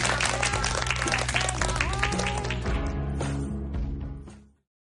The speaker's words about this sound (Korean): 자 오늘 정말로 좋은 강연 해주신 우리 하 교수님께 다시 한번 감사의 박수 전합니다.